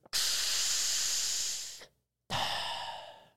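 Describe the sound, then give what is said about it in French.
A voice imitates a hookah (chicha) puff: a long, breathy hiss of exhaled air lasting nearly two seconds, a short pause, then a second shorter breathy exhale, fairly loud with no talking. “T'entends juste une puff de chicha.”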